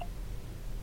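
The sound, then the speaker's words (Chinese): A screen reader's scrolling tone, heard while scrolling an app list with a two-finger swipe: one brief, mid-pitched electronic blip right at the start, then only a low steady hum with no talking. “你现在听到的声音是呃卷轴，”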